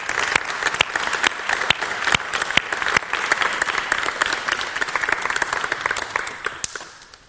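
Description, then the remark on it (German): A room full of people applauds warmly to welcome two guests, a dense patter of many hands clapping steadily for several seconds before gradually tapering off at the end. “Wollen wir die beiden mal ganz herzlich willkommen heißen.”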